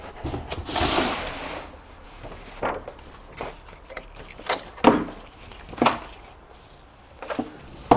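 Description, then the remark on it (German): Rustling and clattering as a small plastic box, its cracked handle repaired with three layers of tape, is handled, with a few sharp knocks and clicks, including one crisp tap as it is set down on a surface. “So, die stelle ich jetzt hier einfach hin.”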